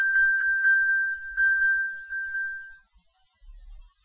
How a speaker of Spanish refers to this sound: Si nosotros eh, le picamos, oiremos el iPhone, es decir, oiremos un ruido en el iPhone para saber dónde está, ¿eh?